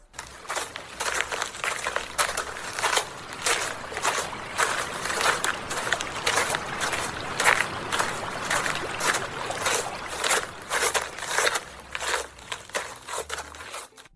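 Steady rushing water from a waterfall fills the background while crunchy footsteps walk beside it at an even pace. The sound is fairly loud, with no voices.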